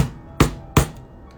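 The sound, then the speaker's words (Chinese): Two loud, sharp slaps as a shirtless man in ragged shorts forcefully bangs his hands on a car's engine hood, a fraction of a second apart, each ringing briefly before fading. No one speaks. “突然一个光着上身、穿着条破旧短裤的男人出现在了车前，并大力拍打着发动机前盖。那咣咣的拍打声啊，别提多响了。”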